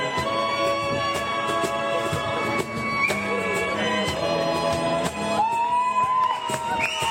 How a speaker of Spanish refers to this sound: y ahora vais a escuchar a la gente aplaudiendo.